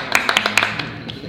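A short burst of hand clapping: several sharp, irregular claps in the first second, fading out, with a faint voice murmuring underneath.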